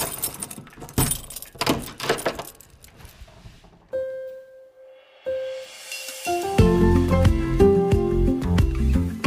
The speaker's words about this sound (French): Vous avez la clé pour sortir de votre cellule. Il vous suffit maintenant d'ouvrir la porte et de vous libérer pour de bon.